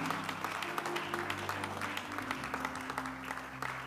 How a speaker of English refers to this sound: Tonight, celebrate God with a clap offering. That clap is not good.